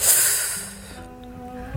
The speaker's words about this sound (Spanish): El hombre triste siguió cuidadosamente las instrucciones y decidió en ese mismo instante probar sus efectos. Destapó la botella y aspiró con fuerza.